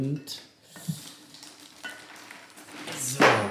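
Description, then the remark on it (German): A hand rummages at random through a bucket full of ice cubes holding three bottles, one of them wine, making a rattling, crunchy clatter of shifting cubes with a few sharper clinks, louder in a final burst toward the end. “der ist jetzt aber voll mit Eiswürfel”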